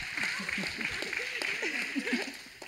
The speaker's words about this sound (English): Amen. That's good. You can clap for that.